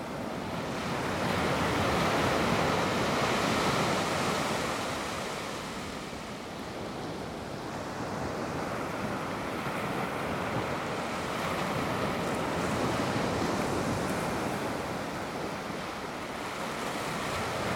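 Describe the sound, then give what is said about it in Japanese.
Ocean surf rolls and breaks on a beach in a continuous, steady wash, swelling gently at times, with a faint breath of wind and no voices. “波の音に意識を向けましょう”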